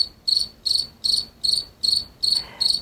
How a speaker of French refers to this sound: Euh, là, personnellement, j'ai vraiment entendu, j'ai genre de criquet dans ma tête.